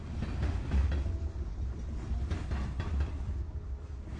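A train runs steadily along the rails on Chinese New Year's Eve, a heavy low rumble and hiss broken by faint, regular clacks of wheels passing over the track joints, with no voices.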